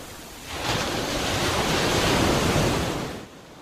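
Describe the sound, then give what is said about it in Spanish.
Sea waves break on the shore in a broad, hissing rush that swells over a couple of seconds and then recedes, fairly loud, with no voices. “Me encanta bañarme y que sus olas me mecen de un lado para otro, porque esto me recuerda a cuando yo estaba en el interior de mi madre.”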